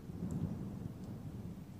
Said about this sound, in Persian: صدای بارون زیاده ولی تو انگار خوابت سنگینه